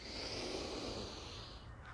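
A long, steady, deep breath, airy and even in loudness for about two seconds, with no talking, taken during a guided breathing exercise.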